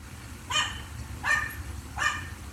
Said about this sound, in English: You, you may hear one or more dogs barking. I, I have one dog who's absolutely deaf, but uh, barks the loudest.